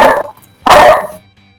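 A dog barks twice, loud and close: a short bark followed after a brief pause by a longer, fuller one, with no one talking over it.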